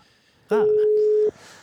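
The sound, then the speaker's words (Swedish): A single steady electronic ringback tone sounds once through a phone line as a call is placed, loud and clear for under a second, with faint background noise before and after. “Vi ringer.”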